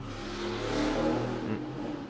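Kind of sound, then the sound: vehicle, car engine revving outside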